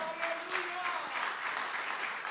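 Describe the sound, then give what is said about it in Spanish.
An audience claps steadily and densely for the Lord, a sustained wash of applause at an even loudness, with faint tonal voices or cheers mixed beneath it. “Dale un fuerte aplauso más fuerte al Señor.”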